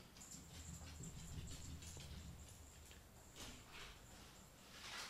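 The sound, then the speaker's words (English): Mickey, the speaker's pet dog, moves about wanting something, its paws tapping and shuffling over a low rumble, with a thin, high-pitched whine running through much of the moment. No one speaks. “Yeah, Mickey, my dog wants something.”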